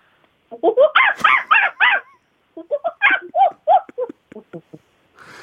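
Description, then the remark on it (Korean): A 24-year-old female university student mimics a leader monkey with rapid, shrill hoo-hoo and ee-ee calls in two energetic bursts, the second trailing off into shorter, quieter yelps. “자, 20, 4살의 미모의 여대생이 아. 원숭이 흉내를 냅니다.”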